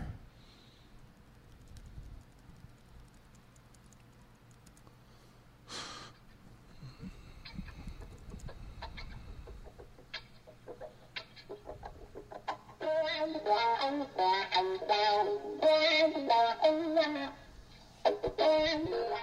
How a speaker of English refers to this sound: Okay, so all of that is he's he's playing the strings on his guitar, but he has a pedal called a wah wah pedal that he's operating. If you look at my right foot, he's operating like an accelerator on a car, so like a gas pedal.